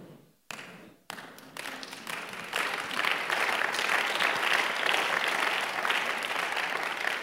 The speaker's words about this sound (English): What are you doing? Are you clapping?